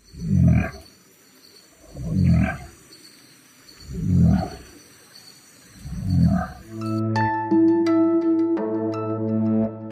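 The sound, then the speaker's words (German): An Australian southern cassowary's low booming call: four deep, rumbling booms spaced about two seconds apart, fairly loud, before steady tonal music takes over at the end. “Die klangen wohl so ähnlich wie der australische Südkasua. Das ist ein Vogel und der klingt so.”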